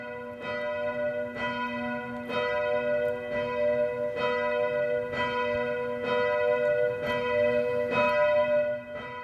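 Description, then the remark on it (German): Church bells ring steadily at 12 noon in Wasserburg on the Inn, Germany, a rich stack of ringing harmonics with regular strikes roughly every second and a half, loud and sustained with no voices over them. “Jetzt wird es gleich leiten. Es ist 12 Uhr Mittag. Außenrum leiten schon ein paar.”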